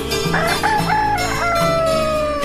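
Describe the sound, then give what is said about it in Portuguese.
A rooster crows loudly on its roost, one long drawn-out cock-a-doodle-doo with a wavering, strained tone, over a steady low background hum. “escuta seu despertador no puleiro cantando.”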